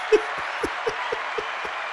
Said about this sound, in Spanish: Un aplauso para el Pachá.